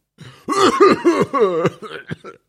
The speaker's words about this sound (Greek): είπε βήχοντα.